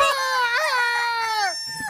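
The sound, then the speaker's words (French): A person on all fours imitates a rooster crowing: one loud, strained, drawn-out call, rising briefly, holding for over a second, then dropping away. “je faisais que crier le coq.”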